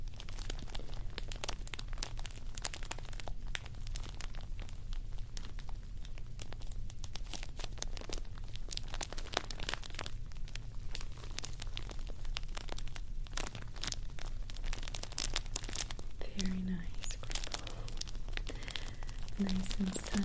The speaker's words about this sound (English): Let's listen to the crinkle, okay?